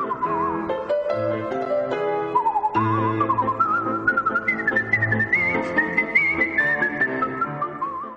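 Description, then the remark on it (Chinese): A clear, steady whistled melody floats over instrumental accompaniment with bass and chords, the tune gliding gradually higher over several seconds. No one speaks. “我的纯音乐口哨专辑拿到格莱美奖，进而让全世界的人都喜欢吹口哨，全世界的人都会吹口哨。”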